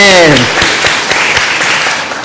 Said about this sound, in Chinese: 哈利路亚！再次拍手，荣耀归给神。阿门。